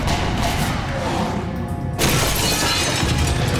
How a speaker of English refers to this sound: shattering the thick walls into burned, smoking shards.